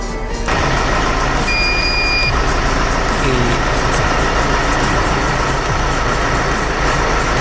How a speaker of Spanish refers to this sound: después de probar esto lo que hago es arrancar el coche arranco el coche para restaurar el de voltaje en la carga de la batería